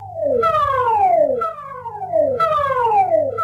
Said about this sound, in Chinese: 随着民防部队的警报响起，新加坡齐心应变演习在风华南岸办公楼正式展开。